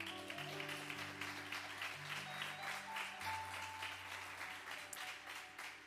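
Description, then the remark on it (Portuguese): An audience applauds the Lord steadily for about six seconds, a dense, even wash of many hands clapping, while sustained low instrumental notes hold and shift underneath. “Então aplaudo o Senhor, vou ver agora.”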